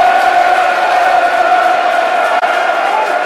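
A large football stadium crowd at a Millwall match applauds, roars and cheers after pressing work by Millwall wins a corner about 13 minutes in, a dense, continuous wash of noise, loud and sustained throughout with no individual voices standing out.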